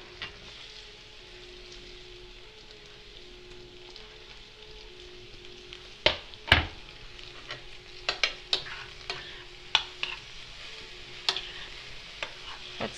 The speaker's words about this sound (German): So, jetzt haben wir einen schönen großen Zucchini aufgeschnitten. Das geben wir jetzt auch in die Pfanne.